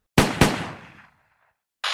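Two loud gunshots in a trailer for the story "Истории в тумане" fire in quick succession, their sharp cracks trailing off in a long ringing decay, followed by a moment of silence and then a sudden burst of steady hissing noise.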